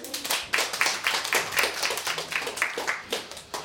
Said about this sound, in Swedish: Var kommer ni ifrån? Studiebesök från? Nacka Nacka. Härligt. Ja, en applåd.